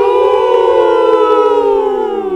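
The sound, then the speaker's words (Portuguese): A human voice lets out a long, loud wolf-like howl as a closing farewell, holding one steady, rich tone for over two seconds before sliding slightly lower and fading at the end. “faltar aquele uivo, certo?”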